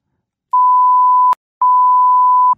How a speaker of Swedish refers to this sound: Nej men jag, jag kan, jag, kan, jag kan blipa det i podden.